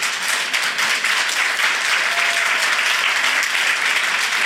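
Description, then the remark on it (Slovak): A crowd applauds a judge and a prosecutor steadily, a dense, even wash of many hands clapping at a constant loud level with no gaps, no individual claps standing out, and no voices. “potlesk ako pre rokové hviezdy, pán Hamran?”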